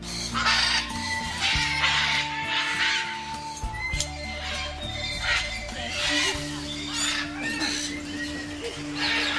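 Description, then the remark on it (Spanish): A flock of parrots squawks loudly from the treetops, harsh raucous calls overlapping in repeated bursts throughout, with a steady low hum running underneath. “Otros dicen que los que vinieron eran solo un grupo de loros haciendo”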